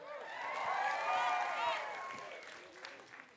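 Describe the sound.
A crowd, asked to give someone a hand, breaks into applause mixed with cheering voices, swelling quickly, holding steady for about two seconds, then fading as the clapping thins out toward the end.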